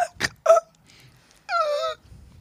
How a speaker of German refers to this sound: Wie Sie, äh, Sie da rumhusten in, ins Mikro, das ist wirklich sehr schön. Da werden sich die ganzen Podcast-Abonnenten wirklich sehr freuen.